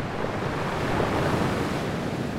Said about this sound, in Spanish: estaba a merced de las intensas olas.